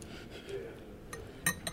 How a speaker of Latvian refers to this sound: kamēr es te leju, iebēršu bišķiņu cukuriņu iekšā šitā te.